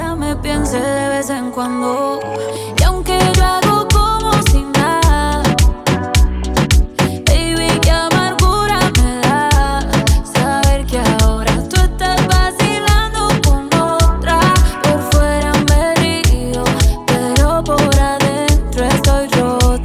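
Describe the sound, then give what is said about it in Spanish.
An upbeat, fast reggaeton track plays loud and steady, with a punchy repeating beat and bright melodic layers after a short sparse intro; no one talks over it. “temazo, Y es que yo creo que la fórmula que a mí me gusta, y ahora estoy descubriendo, es el reggaetón y reggaetón rápido.”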